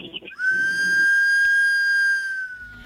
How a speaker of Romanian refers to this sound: Să zicem că e un sunet de tren, un claxon de tren, dar cred că e mocăniță. Hmm. Așa îmi pare și mie.